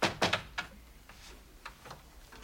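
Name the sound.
door being closed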